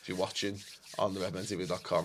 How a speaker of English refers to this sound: I'm going to try and do this as close to the mic as possible for audio listeners. That's the sound of me rubbing my hands together with glee.